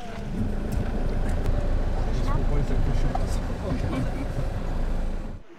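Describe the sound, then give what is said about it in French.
Steady, loud engine and road rumble from inside a moving van, one of three vehicles in a Resto Bus convoy delivering meals at 7 pm, heading to quai Gambetta, with wind noise and faint background voices, running continuously before cutting off abruptly at the end. “19h, j'accompagne l'équipe dans l'un des trois véhicules du cortège.”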